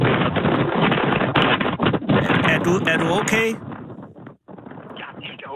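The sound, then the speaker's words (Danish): Strong wind buffets the microphone with a constant, heavy rumbling roar, loud throughout, while a person speaks briefly over the gusting noise. “Jeg kan høre, det blæser altså virkelig øh, hårdt.”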